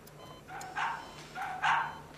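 animal, dog barking

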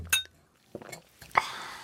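household object, glasses clinking

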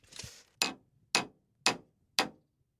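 tool, hammering a nail

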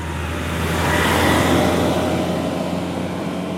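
vehicle, garbage truck driving past

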